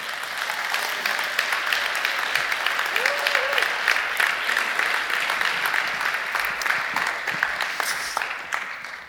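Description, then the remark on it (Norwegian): Sustained applause from an audience for two people being called up to the front, a dense steady patter of many hands clapping for about nine seconds, with a brief faint whistle-like tone partway through. “Og nå kan dere komme opp, og så kan dere andre klappe for dem.”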